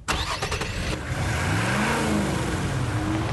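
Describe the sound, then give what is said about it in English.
The 317-horsepower V8 engine of a 2015 Nissan Titan pickup truck roars to life with a sharp start, then revs and pulls away, its deep throaty rumble rising and falling in pitch, loud throughout. “It's our biggest, baddest, most capable pickup truck that sports a beefy 317 horsepower from a massive V8 engine”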